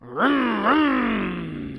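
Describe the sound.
A voice on the Dave Dameshek Football Program imitates a revving motorcycle: two quick upward pitch swoops, like throttle blips, then a long buzzy drone that slowly sinks in pitch and fades slightly, with no other sounds.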